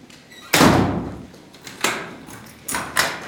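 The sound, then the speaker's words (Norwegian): Two heavy doors forming an airlock at a freezer-cold seed store open with a loud clunk, followed by further thuds and latch sounds as the doors swing and shut, several sharp impacts spaced across a few seconds. “to dører, så vi liksom har en sånn sluse, slik at vi ikke taper for mye kulde når vi går igjennom.”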